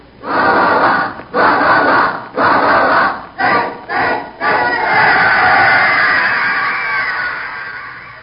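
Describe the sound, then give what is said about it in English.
A large crowd chants in several loud, rhythmic bursts, then breaks into a sustained, full-throated roar that gradually fades, like stadium fans at a football game. “It was a tense moment, but they fit. the crowd roared.”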